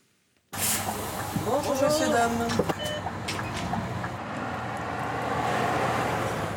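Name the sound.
bus driving past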